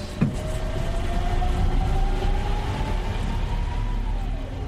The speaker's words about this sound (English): So to have a vehicle that will not burn anything, uh, just run on electricity, is a fundamental cleanup. This is not show, this is really tell. Let's start it up here. It's like a lot quieter than your standard diesel truck, huh? That's real nice.